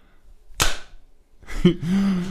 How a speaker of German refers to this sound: Das war, sind, wir jetzt, sind wir jetzt asynchron? Sollen wir noch kurz mal klatschen? Nehmen wir mal klatschen. Ja, klatschen komm.